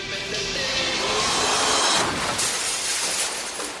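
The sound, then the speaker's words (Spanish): A car smashes through the display window of a luxury jewellery shop after the drunk driver mistakes first gear for reverse: a loud, dense wash of shattering glass and crunching impact that stays harsh and noisy for several seconds, with no voices. “Su auto se estrella contra el aparador de una joyería de lujo.”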